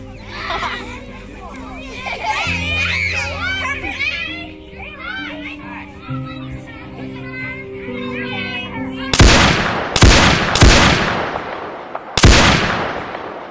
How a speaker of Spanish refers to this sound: Cada uno recibió dos balazos para cerciorarse de que cayeran bien muertos.